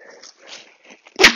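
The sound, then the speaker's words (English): A dog named Mumphy, off the lead on a walk, makes a string of soft whimpers and yips, ending in one sharp, loud bark. No one speaks. “As a responsible dog owner, Mumphy is being quite feisty out on walks, so there may be some shenanigans later.”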